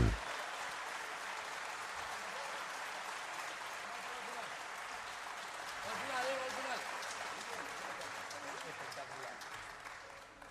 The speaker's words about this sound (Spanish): Bien, vuelvo a agradecer sus aplausos este,